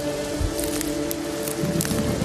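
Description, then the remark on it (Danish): Heavy rain pours down outdoors in tall scrub in a steady, dense hiss, with brief sharper splashes and crackles popping out of the continuous wash. No voices are heard. “Det regner stadig meget voldsomt.”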